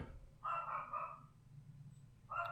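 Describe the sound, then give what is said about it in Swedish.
A dog barks in the background, a quick pair of woofs followed after a pause by another bark at the end, fairly soft and with no one talking over it. “Ja, låt, låt han vara med och woofa lite.”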